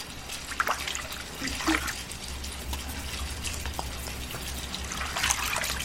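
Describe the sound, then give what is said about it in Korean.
Water runs steadily from a bathroom tap with an uneven splashing hiss, as if hitting a basin or hands, continuing without pause in a small echoing room alongside a low hum, as a woman brushes her teeth and washes her face. “여자는 양치를 했고 세수를 했다. 머리라도 감는 듯 물소리는 쉬 그치지 않았다.”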